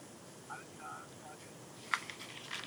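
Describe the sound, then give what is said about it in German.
Faint mobile phone call tones from an incoming call from a radio station, a few short electronic beeps in quick succession, followed by a sharp click and some soft handling noise against a quiet background. “Nein, es ist kein Wohnungsangebot, sondern ein Radiosender.”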